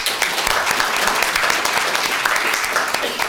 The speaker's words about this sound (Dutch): Geef hem een applaus.